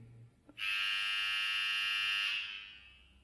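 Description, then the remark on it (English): A loud, steady electric buzzer in a theater sounds once after a faint click, signaling that a performance is about to begin, holding a harsh, bright drone for nearly two seconds before fading away. No one speaks. “It's funny how they press the buzz sound to say a performance will begin.”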